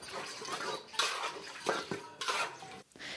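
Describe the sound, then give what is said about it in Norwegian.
Dishes being washed by hand outdoors in the farmyard of a village home in rural India, with water fetched in a container: steady clatter of plates and cutlery with splashing and sloshing water, in irregular bursts and no talking. “Det er der hun tar oppvasken for hånd.”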